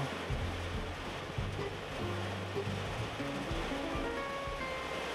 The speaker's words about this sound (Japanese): 今あれですよ選挙の話してたら大雨になってきてまるで天が選挙の話をするなと言わんばかりの